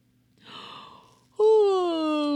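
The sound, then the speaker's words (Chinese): A voice imitates a hedgehog yawning: a soft, breathy intake of air, then a loud, drawn-out voiced 'aah' that slowly glides down in pitch. “哦，小刺猬打了一个哈欠。”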